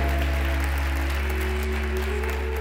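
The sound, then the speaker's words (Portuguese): A church audience applauds for Jesus, a dense, continuous wash of clapping with no pauses, over sustained low keyboard or organ chords that hold throughout. “Pode aplaudir, Jesus. Aplauda, aplauda, aplauda.”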